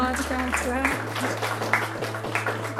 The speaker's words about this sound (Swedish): Vi kan ge en liten applåd.